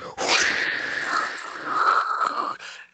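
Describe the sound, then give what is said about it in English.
A person imitates a hot air balloon burner with a sustained, breathy roaring hiss lasting a few seconds, steady and fairly loud, fading abruptly at the end. “let me let me fire up the hot air balloon.”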